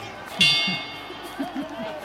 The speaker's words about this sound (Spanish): Suena la campana y como si no los hubieran presentado, se empiezan a dar entre oreja, ceja y jefa.